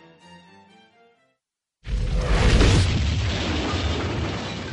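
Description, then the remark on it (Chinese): Soft tonal music fades into a brief silence, then a streaked fireball crossing the sky explodes with a deep boom and a long, roaring rumble that sustains to the end. “一个条纹状的火球穿过上空，并且爆炸。”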